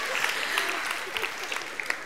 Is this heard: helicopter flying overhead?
no